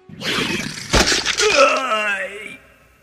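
A barrier cracks and breaks apart: a rough, crackling rumble builds into one sharp, loud snap near the middle, then a wavering, groaning tone trails off before the sound ends.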